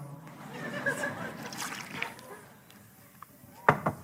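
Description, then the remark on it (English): Water sloshes and pours in a soft, continuous wash, with low murmuring voices in the background and two sharp clinks close together near the end. “You mind if I have some water?”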